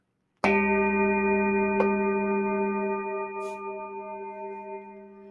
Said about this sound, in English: And let me go ahead and move the microphone towards this singing bowl over here. This is a Tibetan singing bowl that was handmade.